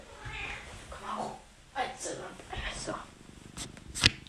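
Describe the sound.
A cat purrs steadily, a low, rumbling, motor-like vibration that continues beneath a person talking, with a brief sharp sound near the end.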